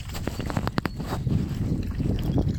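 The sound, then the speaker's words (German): Gusty wind rushes and rumbles as it starts blowing into a house, a steady low buffeting that swells over a couple of seconds, with a few light knocks and rattles near the start and no one speaking. “Und jetzt fängt der Wind hier an reinzuwehen.”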